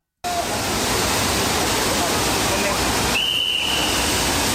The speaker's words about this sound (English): Someone, okay, the fountain police are blowing the whistle. She's in trouble.